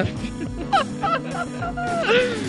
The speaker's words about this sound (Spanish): Cállate, perro.